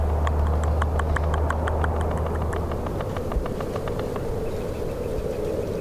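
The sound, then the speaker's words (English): A frog's mating call in swampy, shallow wetland channels: a quick, steady run of dry, woodpecker-like knocks over a constant low rumble of background noise, fading out before the end. “Yeah, sometimes I'll hear a, a woodpecker in the distance, and it'll sound just like the mm-hmm. frog, their mating call.”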